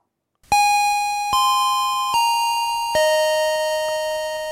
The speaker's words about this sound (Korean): 자, 이 소리가 종소리가 나면은 이게 바로 고, 배, 어, 골든벨이에요. 이걸 딱 나오면 이 소리가 나오면 그때 이제 골든벨 키워드가 공개가 됩니다.